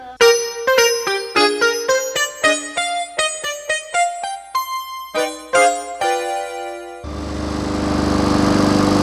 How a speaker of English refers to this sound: I think the lawnmower threw something